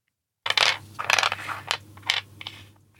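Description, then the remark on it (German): A die rattles and slides across a hard tabletop during a dice game in a series of short clicks and scrapes, fairly loud, lasting a few seconds before settling; it is more slid than rolled. “das nächste Würfelgeräusch hier”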